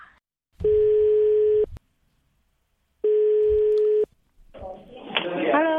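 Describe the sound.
A telephone ringback tone sounds twice as a call is placed for a quiz on Korean culture, each steady buzzing ring lasting about a second with a pause between, clear and loud, before a voice begins speaking on the line.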